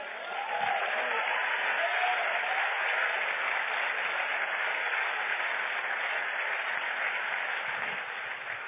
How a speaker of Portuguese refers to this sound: Seja a tua motivação agradar o Deus que te salvou, te vocacionou no nome de Jesus. Aplauda ele bem forte.